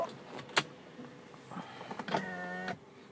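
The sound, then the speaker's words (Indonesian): A car's power window motor whirs steadily for about a second, opening the window a little, with a buzzing, harmonic hum, preceded by a sharp click and some faint clunks, then stops abruptly. “buka kaca dikit”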